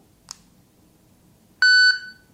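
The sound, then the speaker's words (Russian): A brief click is followed by a single loud electronic beep, a steady high tone with bright harmonics lasting about a third of a second, then quiet. The beep is the signal, after pressing and holding a device's middle button, to start speaking to record an audio note. “Таким же образом нажимаем и удерживаем среднюю кнопку, после звукового сигнала начинаем говорить.”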